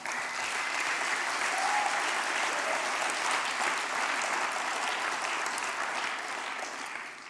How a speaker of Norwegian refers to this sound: Og det er verdt en applaus.